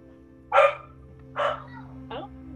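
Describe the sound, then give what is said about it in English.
The speaker's dog barks three times in quick succession, the first bark loudest and the later ones shorter and fainter, over a steady low hum. “can you hear my dog?”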